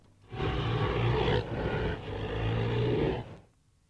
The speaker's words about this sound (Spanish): imagínate el rugido del tigre, ¿no? Y eso combinándolo con un rugido de un león, cambiándole el tono, haciéndolo más grave y estirándolo, Uniendo los dos y ralentizando las velocidades o invirtiéndolas, sale estos rugidos temerosos.